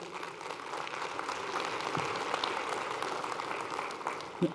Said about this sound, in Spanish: Gloria a Dios. Den un aplauso al Señor por ello.